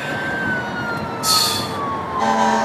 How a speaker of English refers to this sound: It was just uh, sirens come in, and well, oh, there's still another fire truck here.